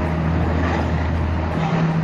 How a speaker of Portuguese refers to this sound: tá passando o caminhão bem na hora, maravilha.